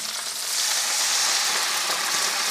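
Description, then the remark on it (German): A loud, steady hiss of liquid sizzling in a hot pan as a splash of white wine is added to fried onions, bubbling hard without letup, with no voices. “Weißwein, ein schöner Schuss Weißwein.”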